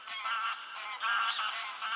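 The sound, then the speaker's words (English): Greylag geese honk in a steady chorus of nasal calls that overlap almost without pause for two seconds, with only a couple of brief dips in loudness. No one speaks. “The greylag goose, which lays a naturally brown egg, if it has to choose between its own egg and a volleyball, it will choose the volleyball.”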